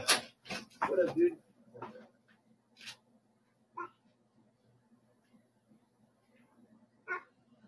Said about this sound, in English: I gotta let my dog in real quick.